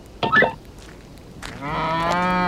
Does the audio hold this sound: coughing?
no